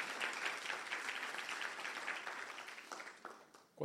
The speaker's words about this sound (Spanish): Dale un aplauso a Jesús. Vamos, un aplauso fuerte al Señor.